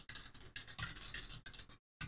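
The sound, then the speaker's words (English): Rapid, steady clatter of keys being typed on a computer keyboard, fairly quiet, with a brief pause near the end before the tapping resumes. “I That's hear you typing.”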